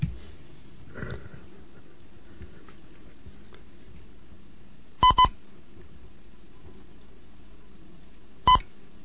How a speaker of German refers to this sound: Hier ist Legott 1 Kilo November mit der zweiten Lektion des Morseunterrichts für Anfänger.